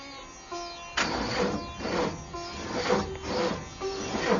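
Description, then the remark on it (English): The broken-down engine of the Magic Bus, in a simulation set in a hot desert, sputters and grinds in uneven, rhythmic bursts, whining tones weaving through the rough mechanical churn. It sounds fairly loud, with no voices. “Sounds like the Magic Bus is broken down.”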